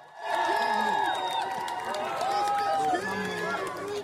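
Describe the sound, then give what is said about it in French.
A large crowd cheers and applauds steadily as King Charles III returns to Buckingham Palace shortly before 2 pm, a dense wash of clapping and shouting with voices rising above it, sustained at a loud level throughout. “Peu avant 14h, il fait son retour au palais de Buckingham sous les ovations.”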